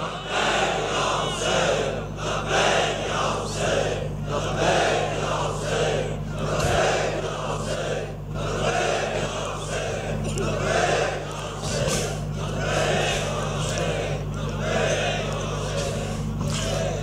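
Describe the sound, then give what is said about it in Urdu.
A large crowd chants the slogan "Labbaik Ya Hussain" loudly in unison, the phrase repeating in steady rhythmic waves for the whole stretch, dense, with a constant low hum underneath. “کم از کم یہ وادی تو گونجنی چاہیے آپ کے لبیک یا حسین سے بلند دونوں اٹھیاں بلند کر کے سب بلند آواز سے کہو لبیک یا حسین”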